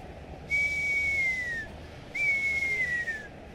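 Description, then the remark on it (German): Two whistled tones from a human mouth imitating a screaming New Year's firework, each a sustained high note about a second long that slowly slides downward, heard alone over a faint background hiss. “Ich versuche mit dem Mund das Geräusch von so einem Silvesterheuler hinzukriegen.”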